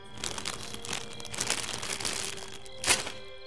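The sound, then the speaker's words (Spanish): A small crinkly bag of pistachios is handled and opened, giving a steady run of irregular, papery rustles and crackles, ending in one sharper, louder crinkle. No one speaks. “Mientras descansaba, abrió una bolsita de pistaches que llevaba”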